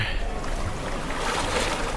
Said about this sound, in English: Wow. Honk, honk. There's the boat.